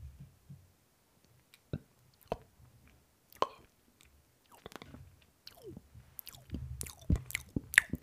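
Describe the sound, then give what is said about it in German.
Soft, wet mouth noises as a person pushes air from a full mouth down over the tongue and larynx: scattered clicks, smacks and muffled puffs of air, irregular and soft, sounding much like someone chewing or eating. No talking. “Hört sich jetzt für Essen an, wenn du es bei mir hörst.”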